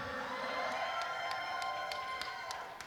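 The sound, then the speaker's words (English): A large crowd on Super Bowl Sunday shouts and cheers together in answer to the speaker's greeting, a sustained, loud roar, with a few sharp claps or whoops popping out above the collective noise. “You shouted louder on that one.”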